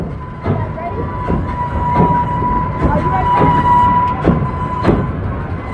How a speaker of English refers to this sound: With the visual scan, the all clear was given, and the train left the station. It makes a U turn before engaging the lift, and it squeals like a New York subway car as it makes the turn.